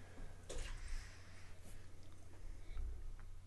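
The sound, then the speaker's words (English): Bigfoot beer, a 2007 version, being poured into a glass, a soft continuous splashing and gurgling with a few brief bright spatters, fairly quiet, over a low steady hum with no one talking. “You can hear that nice little splash.”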